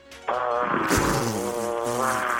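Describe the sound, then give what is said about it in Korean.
A woman in her early thirties imitates a grass trimmer with her voice on Park Myung-soo's Radio Show, a steady, buzzing drone that starts abruptly and holds at a loud level for a couple of seconds, pitch wavering slightly like an engine revving. “자, 30대 아, 초반의 여성분이 하는 제초기 소리 출발합니다.”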